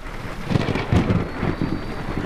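A thunderstorm rumbles with low rolling thunder beneath a steady hiss of rain, the booms swelling in brief surges over the continuous downpour.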